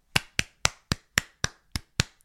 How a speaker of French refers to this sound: J'aimerais qu'on l'applaudisse. Allez, on l'applaudit tous ensemble.